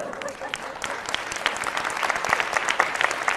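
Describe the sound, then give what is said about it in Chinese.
An audience at a talk in a meeting venue applauds steadily, a dense wash of many hands clapping at an even, moderately loud level for a few seconds with no voices standing out. “我觉得可以鼓掌啊！”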